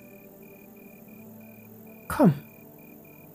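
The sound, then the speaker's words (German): A cricket chirps faintly and steadily in the background among lavender bushes in the evening sun, its short pulses repeating at an even rhythm, while a voice briefly speaks a single word near the end. “Zwischen den lilafarbenen Lavendelsträuchern hörst du eine Grille zirpen.”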